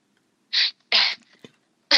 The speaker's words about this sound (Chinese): 你在干嘛？ 我我在擤鼻涕呢。